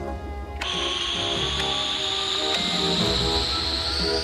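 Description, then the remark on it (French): A steady, loud hiss of escaping air begins abruptly after about half a second and continues without a break, with a high whistling tone that slowly rises in pitch, as a spacecraft airlock is depressurised with Tintin, in his spacesuit, and Milou inside. “Prêt, mon brave Milou nous sommes prêts, capitaine C'est parti, Moussaillon Dépressurisation du sas”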